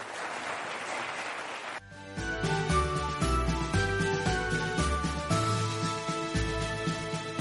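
A short burst of crowd applause for a panel fills the first couple of seconds, then cuts off as loud instrumental music with steady rhythmic notes takes over for the rest.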